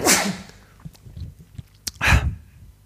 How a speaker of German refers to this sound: Was war das? Das war, ich äh, musste niesen und habe dafür das Headset abgenommen. Was? Wer weiß, wer kann denn mit diesem Anlauf niesen, dass er dafür das Headset extra abnimmt? Das ist ja beachtlich rein.